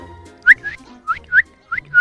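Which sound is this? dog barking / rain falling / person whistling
person whistling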